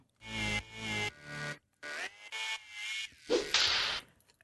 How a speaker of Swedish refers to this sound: Eh, jag måste säga en sak relaterat till den här jingeln. Det är ju en piska för att vi liksom vill symbolisera att vi blir piskade.